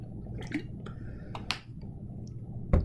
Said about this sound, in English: I thought I was saving my breath, my voice, but gotta have some water.